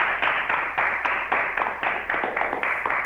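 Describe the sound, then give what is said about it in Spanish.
Steady applause from the students and teachers of the Susana de Castelli school closing their weekly radio column: a dense rhythmic patter of hand claps at an even pace that continues without a break for a few seconds, with no voices over it. “Bueno, nos vamos como siempre con un aplauso en el deseo de reencontrarnos el próximo lunes.”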